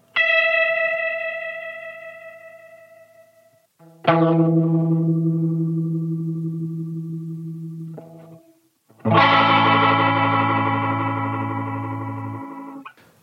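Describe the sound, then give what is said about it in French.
Three sustained, organ-like chords ring out loudly and slowly fade, each swirling with the fast tremolo of a Leslie rotating speaker cabinet spun at fast speed, with no talking. “Et enfin, grand traditionnel, la cabine Leslie, qu'on peut faire tourner lentement, comme ça, Ou rapidement, ce qui fait des effets très trémolo très intéressants qui rappellent presque certaines réverbes à ressort.”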